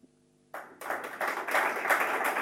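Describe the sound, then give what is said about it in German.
After a brief low humming tone, an audience bursts into applause at the end of an evening lecture: dense, many-handed clapping that starts suddenly and swells a little louder, continuing steadily to the end. “Applaus”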